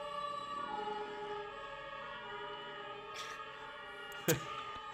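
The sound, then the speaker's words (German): Sirens from fire engines, police cars and ambulances passing on the street outside wail in steady, layered tones at moderate loudness, holding throughout with a brief sharp knock near the end and no one talking. “hier fährt gerade nämlich komplett Feuerwehr, Polizei, Krankenwagen.”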